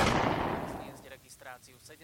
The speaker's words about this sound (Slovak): V ten večer padne jeden osudný výstrel. Z bezprostrednej vzdialenosti priamo do hrude – Chlapec nemal žiadnu šancu.